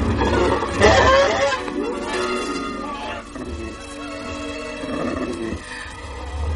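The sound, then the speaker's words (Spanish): A hippogriff comes out to defend and chases off an approaching werewolf. Snarling roars and shrill, screeching animal cries are loudest in the first second and continue in rough, overlapping bursts, with no talking. “El hipogrifo ahuyenta al licántropo.”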